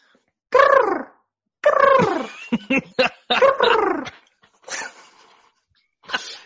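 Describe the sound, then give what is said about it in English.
A duck call is blown, sounding a series of loud, nasal quacks: two drawn-out honks, a quick choppy run, another long quack, then a few fainter raspy ones trailing off. “All right, that was uh, that was a duck call for those uh, wondering, and we'll.”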